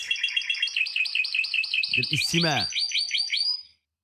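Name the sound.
birds chirping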